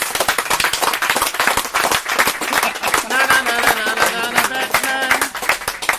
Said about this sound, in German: Abmarsch, erneuter Applaus. Nochmal Applaus.